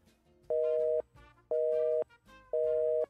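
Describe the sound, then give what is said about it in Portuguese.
A telephone busy signal after a phone call drops: three steady, mid-pitched electronic beeps of equal length, evenly spaced by short silences, loud and clear in a regular on-off rhythm. “Vamos tentar mais uma vez. Se cair a ligação de novo”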